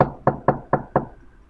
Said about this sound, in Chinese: 一天。一只饥饿的狐狸正准备出门找午餐，在它修爪子的时候，忽然门外传来一阵的敲门声。